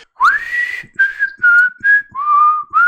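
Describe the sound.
Someone whistles a bouncy, upbeat tune in a short series of clear, sustained notes that glide and step between pitches, loud and alone with brief gaps between phrases.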